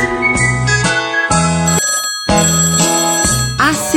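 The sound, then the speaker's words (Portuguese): A bright electronic WhatsApp ringtone jingle plays loud, its short melodic phrase repeating about three times in quick succession with no voices. “WhatsApp. O WhatsApp do Caminho de Assis.”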